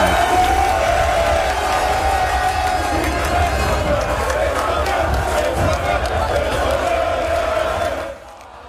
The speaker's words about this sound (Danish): så er det altså lykkelige Brøndby-fans, vi kan høre lige her